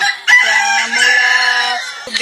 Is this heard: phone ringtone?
no